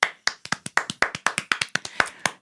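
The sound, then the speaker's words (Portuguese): One person claps their hands, about sixteen sharp, crisp claps in a quick, slightly uneven rhythm, with no talking over them. “vou aplaudir.”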